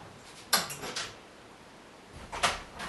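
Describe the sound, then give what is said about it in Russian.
A door being closed by the speaker: a first burst of scraping and clicking, then about two seconds later a second short clatter as it shuts. Moderately loud, with no one talking. “Я прикрою только дверь, там Витя громко разговаривает.”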